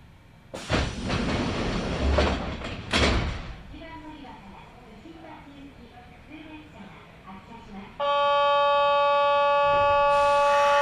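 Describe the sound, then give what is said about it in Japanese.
Train sliding doors open with a loud, rushing pneumatic hiss and thud, then quieter rumbling before a steady, high multi-tone door chime sounds over the last few seconds. “扉が開きますご注意ください”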